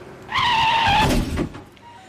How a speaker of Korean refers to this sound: 느닷없는 교통사고.